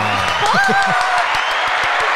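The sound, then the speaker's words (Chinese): A canned applause sound effect on a show, played as praise for Taiwan's Council of Agriculture: a steady wash of many hands clapping, fairly loud, with a rising whistle-like whoop and a brief cheer near the start, continuing evenly to the end. “不会带完， 又 要再拍手一次了”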